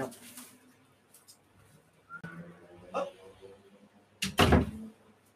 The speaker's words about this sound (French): Ah, elle est ouverte la porte là-bas. Ah oui, il faut que je ferme la porte maintenant.